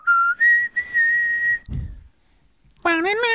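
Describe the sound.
Someone whistles a slow, sustained pop ballad melody, holding long steady notes, then pauses briefly before resuming with a wavering, vibrato-laden phrase.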